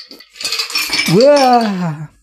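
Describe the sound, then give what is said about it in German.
A cocktail strainer slips from the bartender's grip while pouring into a glass and clatters with a bright metallic rattle lasting about half a second, then a voice lets out a drawn-out exclamation. “Wenn der Bartender den, den Strainer nicht mehr festhält.”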